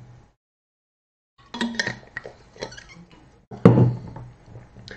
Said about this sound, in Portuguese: Deixa eu tomar uma água aqui rapidinho.